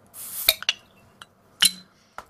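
Two bottles of Lagunitas Cappuccino Stout from Lagunitas Brewing of Petaluma, California, being popped open, each a sharp metallic snap with a brief hiss of escaping gas, followed by light glassy clinks and taps. No one speaks.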